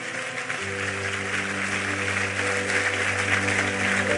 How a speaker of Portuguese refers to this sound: Eu quero que você aplauda Ele em nome de Jesus.